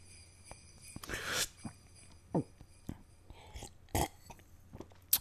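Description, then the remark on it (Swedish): Quiet gulping as someone swallows a headache tablet with a drink, a few soft swallows and throaty clicks with a brief rustle near the start, no talking. “Ah, alltså jag måste ju alltid dricka när jag sväljer tabletter.”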